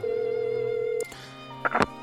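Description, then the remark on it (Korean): A steady electronic telephone ringback tone sounds for about a second, then cuts off, followed by a soft click and a few brief rustling bursts near the end. “왕소심이라 고백을 직접 하진 못하고 하고 싶은 말을 메모지에 써서 전화를 걸었는데요.”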